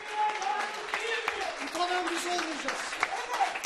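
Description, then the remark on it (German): Colleagues, staff and students at Kocaeli University in Turkey applaud a dismissed sociology lecturer steadily, a dense patter of many hands clapping at moderate volume, with voices mixed in beneath the noise throughout. “Applaus für den Dozenten”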